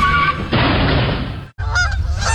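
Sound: geese honking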